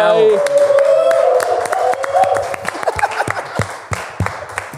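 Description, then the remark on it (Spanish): A crowd bursts into applause with loud cheers and whoops at first, then the dense clapping thins into scattered, sharp claps as the cheering fades. “Este es el podcast más largo. aplauso.”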